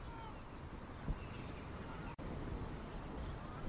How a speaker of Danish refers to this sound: Den havn, der engang var den næststørste flådehavn i hele fjorden, i hele Limfjorden. Det eneste, der minder bare en lille smule om det fiskerliv, der var engang. Det er mågeskrigende.